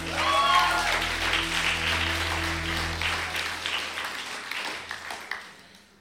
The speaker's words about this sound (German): Mit Applaus für Josua, Dankeschön.